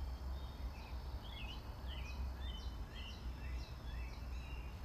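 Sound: birds chirping outdoors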